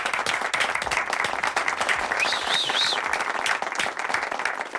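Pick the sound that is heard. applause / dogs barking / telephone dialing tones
applause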